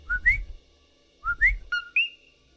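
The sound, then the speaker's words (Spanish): Rising two-note "co-qui" calls of a coquí tree frog of Puerto Rico, repeated three times in quick succession, clear, with a final drawn-out higher note and no talking. “Entonces, ese sonido del coquí, si ustedes quieren meditar y concentrarse en el sonido, pueden crear un estado alterado de conciencia y poder entrar en contacto con energías superiores.”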